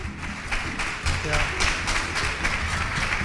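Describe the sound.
An audience applauds steadily for a few seconds, a dense, even wash of many hands clapping with a faint pulsing rhythm and some crowd voices mixed in.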